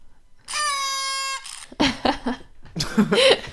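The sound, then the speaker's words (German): A party horn sound played from the internet gives one steady, buzzy toot lasting about a second, then fades out and is followed by bursts of laughter. “ich habe diese Tröte, harter Grinch-Moment, ich habe diese Tröte von, äh, aus dem Netz abgespielt.”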